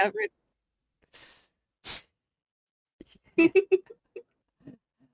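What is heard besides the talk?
heavy breathing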